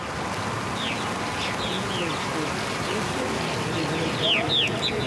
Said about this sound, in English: And right as we step under the canopy, in come hundreds of martins.